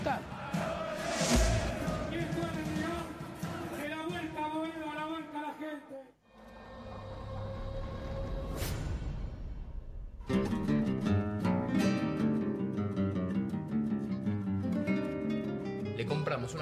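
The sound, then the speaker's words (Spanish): A large crowd of San Lorenzo club supporters marching along 9 de Julio avenue against the flow of traffic, chanting in unison, voices rising and falling in rhythmic harmonic bursts, with a brief lull midway before the loud collective shouting resumes. “Marchamos por 9 de julio a contramano del tráfico.”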